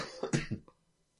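A short fit of coughing, three or four rough bursts in quick succession, then quiet. No talking.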